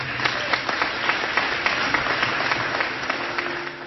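A crowd applauds the Woodbine Choir of young people steadily, many hands clapping in a dense, sustained patter with a few sharper claps standing out, even in loudness throughout.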